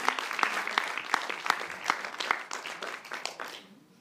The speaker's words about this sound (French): Est-ce qu'on peut juste euh, remercier Dieu encore une fois, une dernière main d'applaudissement.